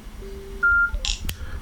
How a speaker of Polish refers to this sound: O właśnie. Słuchawka wydała nam dźwięk, telefon zadziałał.